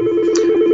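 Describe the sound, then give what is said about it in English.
A loud, steady electronic telephone tone holds for under a second, continuous, with no pauses and no voices. “Sorry about the phone there.”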